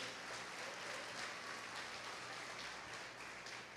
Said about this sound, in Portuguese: Pois aplauda Jesus mais uma vez.